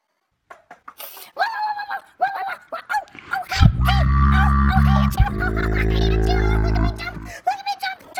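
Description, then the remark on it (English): A small dog, Sweetie Pie, yips and barks in quick, high-pitched bursts, its cries sometimes turning whiny, while a low rumbling sound runs underneath through the middle stretch. “And now, here's an episode of Sweetie Pie, the shitty dog.”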